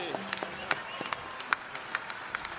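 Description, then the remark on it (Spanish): Light, scattered applause for a group of children who sang: a dozen or so sharp, irregular claps spread across a couple of seconds, fairly quiet, with a faint murmur of voices underneath. “Os nosos cativos, un aplauso para eles.”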